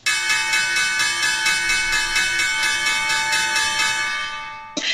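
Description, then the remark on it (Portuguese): A bright bell rings loudly and continuously with rapid, evenly pulsing strikes and a sustained metallic tone, fading briefly near the end before another strike sounds, marking the end of the first part of the Café América programme. No voices are heard. “Já ouvimos o sino, que significa que estamos no final da primeira parte.”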